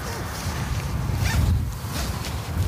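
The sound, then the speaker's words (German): A jacket zipper is drawn closed in a steady, continuous rasping pull lasting a couple of seconds, with a few brighter scratchy bursts along the way; no one speaks over it. “Man kann die ne? Jacke ne? übrigens auch zumachen”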